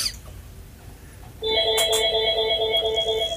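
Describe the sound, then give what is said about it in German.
After a quiet second, a phone starts ringing with a steady electronic ringtone, a bright chord of sustained high tones that carries on to the end, broken briefly by a couple of short clicks. “Bei wem hat das denn jetzt geklingelt?”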